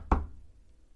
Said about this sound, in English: I'm knocking. But you're looking through the peephole.